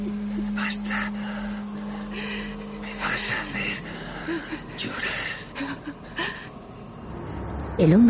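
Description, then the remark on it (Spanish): A woman cries, with breathy, uneven sobs and gasps broken by short pauses, ending in a louder rising whimper; a low steady hum sits underneath at the start. “Ella llora.”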